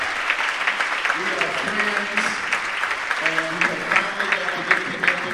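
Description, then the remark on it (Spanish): An audience applauds the pastor and his family steadily, a dense wash of clapping throughout, with voices and faint shouts of cheering mixed underneath. “Quiero decir gracias al pastor y todo el equipo y aplauso al pastor y su familia ahora.”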